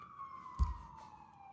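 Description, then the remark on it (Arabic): A police siren wails steadily behind the speaker's location, its tone slowly falling, with a brief low thump partway through. Quiet, with no one speaking. “طب ابتدوا البوليس جاي يقبض علينا واحنا بنتكلم على موضوع سوري آه، آه، ده من عندي انا في صوت بوليس ورا ده من عندي انا”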